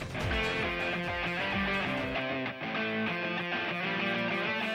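An Italian hip-hop song opens with a loud, dense instrumental intro, its layered synths and beat playing steadily while deep bass notes slide downward near the start. No vocals come in yet.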